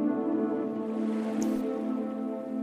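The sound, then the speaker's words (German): A steady, soft rush of ocean waves blends with a sustained, droning musical tone, the wash holding an even level throughout with no voices present. “Die Musik und das Meeresrauschen werden noch ein klein wenig weiterlaufen, sodass du jetzt immer tiefer in den Schlaf sinken kannst.”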